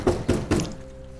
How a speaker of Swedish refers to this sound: Vid halv tre på natten hör vittnet Kerstin knackningar på altandörren som skrämmer henne.